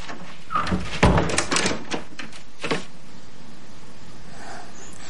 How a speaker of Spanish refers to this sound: Libby entra, cierra la puerta.